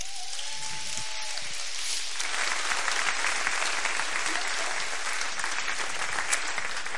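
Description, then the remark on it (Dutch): A crowd breaks into sustained applause for all the children's workers, a dense, steady patter of many hands clapping that swells after a couple of seconds and holds loud until the end, with a faint voice trailing off at the start. “Dus zullen even alle kinderwerkers een geweldig applaus geven?”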